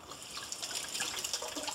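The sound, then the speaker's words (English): Steady running tap water splashes over fingers being rinsed, a continuous bright hiss with small fluctuating spatters throughout and no talking. “You're worried that I'm rinsing off my phone.”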